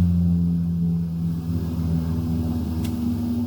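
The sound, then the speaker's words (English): A helicopter flying, apparently landing on a roof, gives a steady, loud low drone that fills the whole stretch, a deep humming rumble with layered engine tones that holds constant, with no voices over it. “There's a helicopter flying, landing on my roof apparently right now.”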